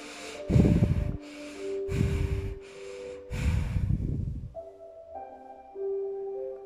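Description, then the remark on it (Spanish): Three quick, forceful breaths in a rapid, strong breathing exercise, sharp with short pauses between them, over a soft sustained musical tone that carries on alone at the end. “vamos a hacer una respiración rápida y fuerte como la del tigre cuando corre.”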